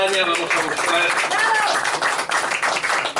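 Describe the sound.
A crowd claps steadily and loudly for a few seconds, a dense wash of applause with voices cheering and calling out through it.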